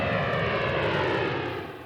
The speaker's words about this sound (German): Nach mehreren Stunden hebt der Flieger von Leipzig Richtung Damaskus ab, mit der so dringend benötigten Hilfe.